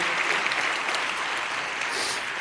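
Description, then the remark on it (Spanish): Sustained applause from a large crowd at an awards gala, responding to a call for applause for healthcare workers, a dense steady wash of many hands clapping at once, fairly loud and continuous throughout with no voices standing out. “Y acababa el discurso eh, también pisando un poco luego a lo que vendría a decir Pilar Castro, la verdad, pobre, em, pidiendo un aplauso para los sanitarios y, defendiendo la sanidad pública.”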